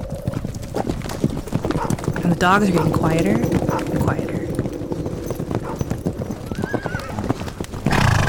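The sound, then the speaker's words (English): Steady clip-clop of horse hooves runs throughout, with a horse whinnying partway through, while a person speaks over the sounds. “And you shouldn't be able to hear it, but you're starting to hear hoofbeats.”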